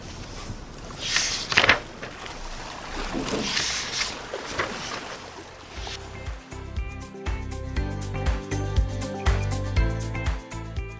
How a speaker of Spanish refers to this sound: Él, quien es también escritor y oriundo de Magangue, Bolívar, estaba acompañado de los sonidos de uno de los ríos más importantes de nuestro país